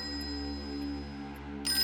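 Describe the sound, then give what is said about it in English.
A telephone bell rings steadily and loudly, a continuous metallic trill that swells briefly toward the end, with no voices present. “Even if it goes on ringing all night, oh, you ring. You go ahead and ring”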